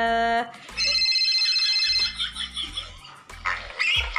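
A phone call ringing tone as a call is placed to a senior colleague: electronic tones pulse in repeated bursts, fairly loud, with a brief melodic ringtone-like phrase and no talking.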